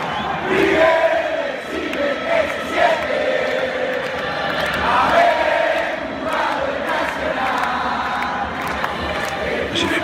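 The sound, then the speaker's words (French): A huge football crowd chanting in unison at La Bombonera stadium, a dense roar of voices rising and falling in sustained sung phrases that continue steadily and loudly throughout, with no single speaker standing out. “Cette passion-là, ces chants, cet enthousiasme, cette folie presque, hein, euh, j'ai jamais vu ça ailleurs.”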